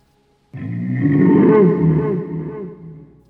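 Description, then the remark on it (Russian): A deep, mournful roar of a sea monster the length of a destroyer, answering a foghorn, bursts in and holds for nearly three seconds, loud, with a low, rumbling, wavering tone before slowly fading. No voices are heard. “В этом крике были миллионы лет воды и тумана.”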